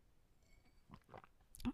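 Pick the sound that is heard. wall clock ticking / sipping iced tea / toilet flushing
sipping iced tea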